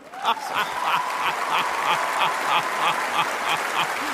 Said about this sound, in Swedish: Jubel!